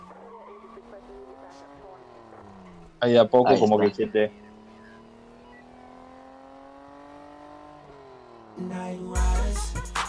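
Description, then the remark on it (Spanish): Car tires squeal in long, wavering skids of a police chase at the start of a song, interrupted by a short burst of loud engine roar and ending in a heavy rumbling surge. A brief spoken voice is also present. “Empieza con todo, introducciones de tiro, eh, policías, persecuciones.”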